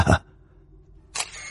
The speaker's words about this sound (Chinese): 他疯狂的按动着快门，镜头下那模糊扭曲的脸被记录在相机里面，